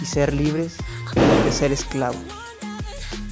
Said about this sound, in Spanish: Si escucharon de casualidad una explosión aquí afuera es porque los niños están tirando cohetes